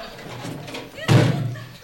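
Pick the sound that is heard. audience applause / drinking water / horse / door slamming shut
door slamming shut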